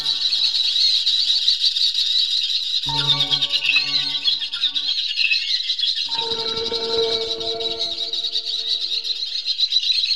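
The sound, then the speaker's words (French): Baby bird chicks give shrill, high-pitched begging calls in a constant, insistent chorus that never lets up, while lower tonal notes drift in beneath it partway through. No one speaks. “Eh, euh, on dirait qu'un petit sort de sa coquille.”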